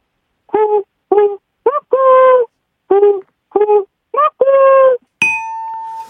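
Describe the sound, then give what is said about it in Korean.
A person mimics a bird heard in the mountains during the vacation season, sounding two phrases of four hooting notes, three short and one drawn out, loud. A single bright bell ding rings out afterward. “어, 먼저 이 휴가철에 잘 들리는 새소리 한번 해보겠습니다.”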